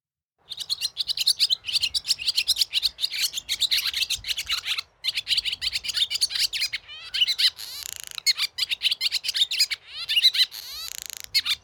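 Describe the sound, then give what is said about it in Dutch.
A barn swallow sings a fast, chattering twitter of rapid chirps and scratchy trills, continuous, with a few brief pauses and rising whistled notes near the end. “Daarom heb ik deze keer met hem afgesproken op landgoed Staveren op de Veluwe om te luisteren naar zijn verhaal achter het geluid van de boerenzwaluw.”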